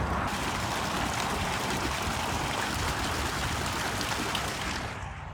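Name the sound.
water fountain splashing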